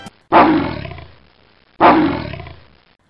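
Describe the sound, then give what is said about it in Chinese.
Two loud animal roars, a big bear roaring from behind iron bars and Happy Lion answering from outside the bars, each bursting in with a harsh, gravelly growl that fades over about a second, separated by a short silence. No one speaks. “就这样，大熊隔着铁栏杆吼一声，快乐狮子在栏杆外也吼一声，两边互不相让。”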